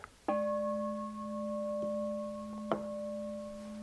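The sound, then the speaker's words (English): A meditation bell, chosen for its pleasant tone, is struck once with a striker to mark the end of a meditation sitting, then rings on in a steady, pure, sustained tone; a soft second tap near the end briefly brightens the lingering hum. No voices. “Just that the tone is kind of not, the bell was chosen to make a pleasant tone, the striker to be pleasant, but more especially because the sitting's over.”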